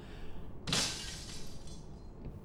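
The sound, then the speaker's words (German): A window pane shatters in one sudden, loud crash, its bright tinkling shards trailing off over about a second against a low, steady background rumble. No one speaks. “Das klang doch wie ein Fenster, das kaputt gegangen ist, oder?”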